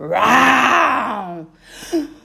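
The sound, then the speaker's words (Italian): A person voices a young lioness's terrible, powerful roar: one loud, drawn-out groaning growl lasting over a second, followed by a brief pause and a short, softer huff. “Per la povera leoncina è troppo. Alex spalanca la bocca ed emette un terribile ruggito.”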